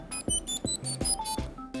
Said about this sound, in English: It even has a buzzer built in.